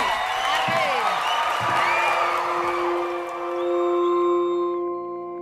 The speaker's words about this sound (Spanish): Después de las ovaciones y los aplausos, llega la calma